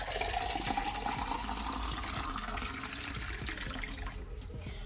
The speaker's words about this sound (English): And then now I'm about to chug a whole glass of water because I'm clearly behind on my water intake for the day.